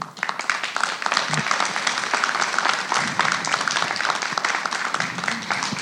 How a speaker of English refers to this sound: Yeah, you're clapping for me now.